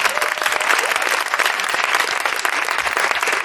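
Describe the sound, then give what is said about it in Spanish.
Steady audience applause out of pity for a performer whose joke drew no laughs fills the whole stretch, a dense, even patter of many hands clapping at a consistent loudness with no voices standing out. “El aplauso de la pena, ya lo sé, Pobre hombre, este hombre mayor, un, por, un chiste que no pone y no se lo ríen.”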